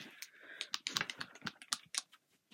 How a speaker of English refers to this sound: So I'm going to be pulling out of the gratitude jar, telling you what I'm thankful for this week. Um, on this one. I don't know if you heard the paper or not, but